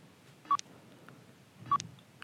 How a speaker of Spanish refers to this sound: ¿Puede escuchar ese bip? Escúchelo.